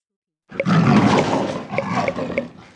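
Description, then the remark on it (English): A tiger lets out a single loud, rumbling roar, sustained for a couple of seconds before trailing off, with no one speaking. “T is for tiger.”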